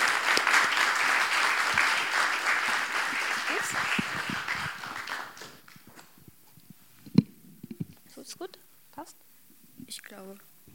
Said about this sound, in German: Gerne Applaus. Applaus